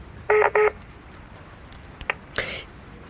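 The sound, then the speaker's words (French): A mobile phone rings with two quick, bright electronic tone bursts for an incoming call, followed by a soft click and a short breathy rustle. “Le portable de Constance se met à sonner.”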